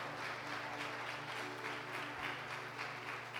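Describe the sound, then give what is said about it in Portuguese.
An audience applauds the Lord steadily, a dense wash of clapping that holds at an even level for a few seconds, with a low sustained hum running underneath. “O sangue, pode aplaudir o Senhor.”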